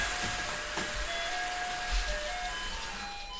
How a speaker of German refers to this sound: Äh, äh, bei mir, was war das Ding jetzt gerade gleichzeitig? Du kriegst eine Attacke wegen der Spinne und bei mir klingelt es an der Tür.